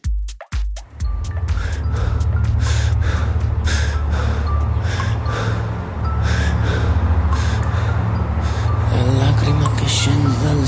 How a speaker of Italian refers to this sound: all'inizio si sente questo sospiro anche un po' inquietante